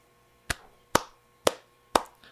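Four soft hand claps land at a slow, steady pace, about half a second apart, each a quick sharp slap with a short fade, with no voices over them.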